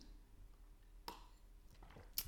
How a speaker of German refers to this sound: Also gewöhne dir an, eine Flasche dabei zu haben und nimme täglich immer wieder einen Schluck Wasser, so wie ich das jetzt hier auch gerade tue. Moment.